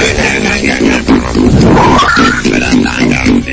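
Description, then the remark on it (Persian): Strange, warbling alien voices growl and chatter continuously, with a pulsing, gravelly tone and wavering pitch, loud, like a processed creature voice from a science-fiction film, presented as an audio recording of the occupants of a flying saucer talking. “صدای آدم فضایی است”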